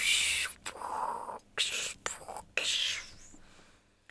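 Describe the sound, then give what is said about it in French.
A voice imitates the muffled rush of the Égalades waterfall as heard through a hydrophone placed in its water, with breathy, hissing whooshes in several uneven bursts separated by short pauses, fairly loud. “pour écouter le bruit de, la cascade des Égalades.”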